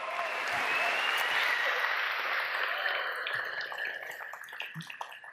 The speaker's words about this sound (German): Ja, mal einen fetten Applaus für die fünf.